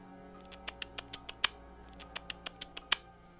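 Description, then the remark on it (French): A voice imitates a squeaky noise for calling a cat in a dark back alley: two quick bursts of sharp, high smacking clicks, each run ending on a louder one, clear with no talking. “Fait que je m'avance dans la ruelle, puis je fais le petit bruit gossant qu'on fait quand on essaie d'attirer des chats.”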